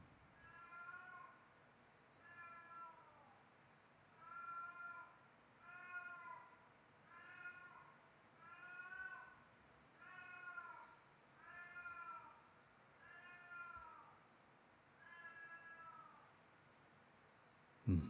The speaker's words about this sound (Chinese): 猫咪可能正在正在 get high 吧，对啊，正在跟人家聊天，对，不要那种猫的惨叫声就好了。